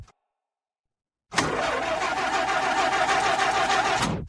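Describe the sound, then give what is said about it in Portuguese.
After a moment of silence, a car engine abruptly kicks in loud, chugging roughly for a few seconds before cutting out suddenly as the car dies. “Mas aí o carro, claro, morre.”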